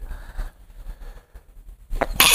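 A speaker sneezes during a show: after about two seconds of near silence with faint low rumble, a single sneeze bursts out at the very end, a brief voiced intake sharply followed by a loud, hissy explosive release.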